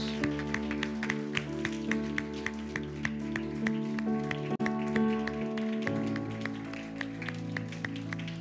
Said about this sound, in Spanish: Vamos a dar un aplauso fuerte a, fuerte a las mamás.